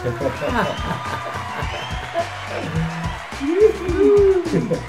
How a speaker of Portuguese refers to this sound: Let's go. Senhoras e senhores, uma salva de palmas!